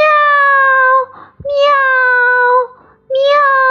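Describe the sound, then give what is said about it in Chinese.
A person's voice imitates the kitten Mimi, giving three long, drawn-out meows with brief pauses between them. The tones are bright, loud and fairly steady in pitch, with no other sounds. “正在玩车的小猫咪咪回答：喵”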